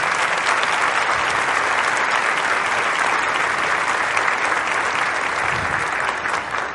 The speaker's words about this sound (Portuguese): Vamos dar uma salva de palmas pelo pessoal que faz isso para nós, né?